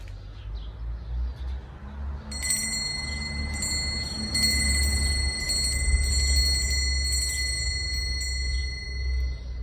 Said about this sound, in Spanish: eso es detrás. Si quisiéramos poner el timbre encima de la cabeza, eso es por encima.